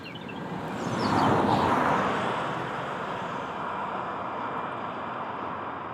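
A car passes by on a quiet country road, its broad rushing noise swelling to a peak early on, then easing into a steady roar as it moves off. No voices.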